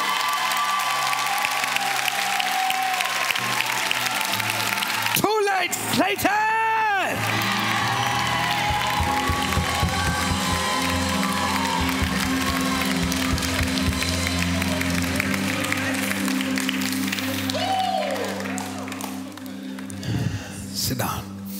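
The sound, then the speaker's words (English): An audience claps and cheers loudly and steadily for about twenty seconds, with scattered whoops and shouts rising above the dense applause, and a few voices calling out near the end. “If you believe it, clap your hands and celebrate that word.”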